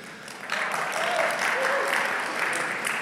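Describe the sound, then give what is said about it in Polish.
Steady audience applause for a man's wife, a dense crackle of many hands clapping that swells after a moment and holds at a fairly loud, even level, with faint voices mixed in. “Tak, należą się oklaski zdecydowanie.”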